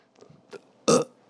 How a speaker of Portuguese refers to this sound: um arroto para vocês.